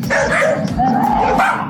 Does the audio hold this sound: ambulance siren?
no